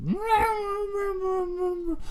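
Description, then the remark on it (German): A person imitates an angry cat with one long, drawn-out yowl that swoops upward, then holds a steady, strained pitch for nearly two seconds before cutting off. It's fairly loud, with no talking. “Aber, weißt du, äh, Hunde sind ja schon krass bedrohlich, wenn die so barken, so, weißt du? Ähm, aber so Katzen, wenn die so.”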